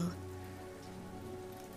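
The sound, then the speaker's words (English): Steady rain falls and patters on a hard surface, a constant dense hiss of drops at an even level, with a faint low hum underneath and no voices. “these cold raindrops on our faces.”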